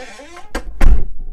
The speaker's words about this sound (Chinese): 但这个时候，我听到房门外男友回家的声音，是我熟悉的那一连串的声音：放安全帽、开大门、开了木门、关了大门，又关了木门，最后就是厕所门开关的声音。